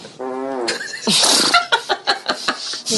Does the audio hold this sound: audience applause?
no